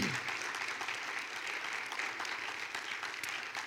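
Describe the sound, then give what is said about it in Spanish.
An audience at a church sermon applauds for the Lord steadily, a dense wash of overlapping claps holding an even, fairly loud level for several seconds without pause or anyone speaking over it. “¿Por qué no le dan un aplauso al Señor?”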